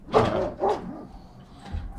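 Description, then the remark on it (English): A dog barks twice in quick succession, fairly loud, followed by a quieter stretch of faint background noise with no talking. “But as of now, I think the dog has some things to say.”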